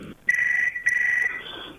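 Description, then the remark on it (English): A phone rings with two bright electronic bursts, each lasting about half a second with a short gap between, fairly loud, with no one speaking. “I don't have your home phone number.”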